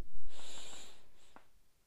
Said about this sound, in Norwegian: Så vi puster inn en gang til.